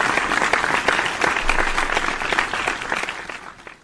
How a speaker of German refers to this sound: Wir müssen noch den, kurz den Applaus machen